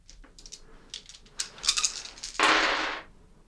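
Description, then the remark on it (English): Dice are rolled for a manipulation and persuasion check: a run of light, sharp clicks and taps, then a brief louder rattling burst as they tumble and settle. No one speaks. “Can you roll me a a uh Oh man. This will be manipulation and persuasion.”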